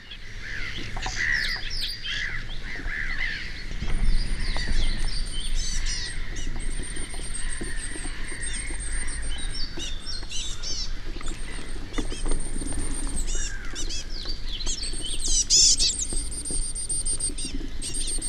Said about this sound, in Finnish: ja silti se koiras antaa sille naaralle ruokaa ja sieltä kuuluu semmoisia tosi korkeita hömötiäisen ääniä